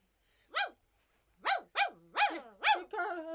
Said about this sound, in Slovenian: Samo zavedali ste mu gobec, da ne bi lajal.